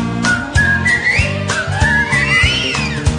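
Someone whistles a wavering, sliding melody, carried over a steady thumping beat with low tones that pulse roughly twice a second.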